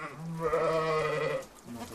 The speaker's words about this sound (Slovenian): takole so nas pozdravile koze in ovce tukaj na domačiji pri Čilčevih